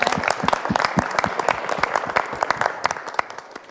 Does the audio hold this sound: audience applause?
yes